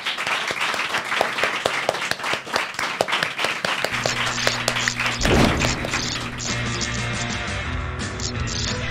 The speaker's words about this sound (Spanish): Un aplauso para ela. Aplausos.